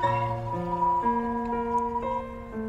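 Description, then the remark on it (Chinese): An ambulance siren passes by, its loud, steady two-tone wail stepping between pitches about every half second with a buzzy, harmonic-rich tone. No one speaks over it. “哇，有个救护车经过。”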